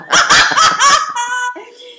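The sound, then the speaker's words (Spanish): A person imitates a dog, letting out four quick, loud barks in a steady rhythm, then trailing into a high, drawn-out whimpering whine. “Yo chicaneando, yo como si perros, ¿cómo es que se hace?”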